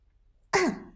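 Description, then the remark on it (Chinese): A single short cough, close to a throat-clearing sound, given before speaking in a serious manner, bursts out abruptly after a moment of silence with a rough, breathy onset and a voiced tail that trails off quickly. “伍兹咳嗽一声，摆出一副认真的样子说道。”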